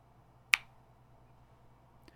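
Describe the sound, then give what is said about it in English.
A single crisp finger snap rings out, a sharp bright click that fades quickly against a faint background hum. “How certain are you that if you were to snap your fingers again, it would sound just like what you had imagined?”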